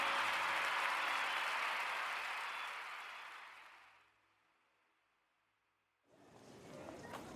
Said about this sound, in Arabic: تصفيق تصفيق حاد يا جماعة